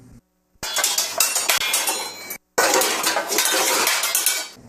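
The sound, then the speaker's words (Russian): A spoon stirs a mixture of half a tablespoon of cornstarch and one tablespoon of water in a bowl, making rapid, bright metallic clinks and scrapes in two loud bursts separated by a brief pause. No one speaks. “пол столовой ложки – кукурузного крахмала, смешанного с одной столовой ложкой воды.”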